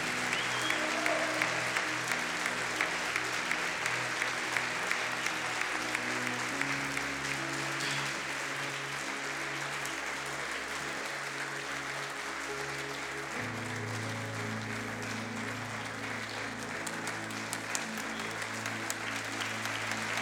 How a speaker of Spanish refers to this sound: Un aplauso para Dios.